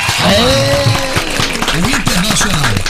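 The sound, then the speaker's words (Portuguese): A group of people give a round of applause for a friend, the sharp rapid claps blending into a dense patter in a steady burst while voices talk over it throughout. “Essas palmas são merecidas”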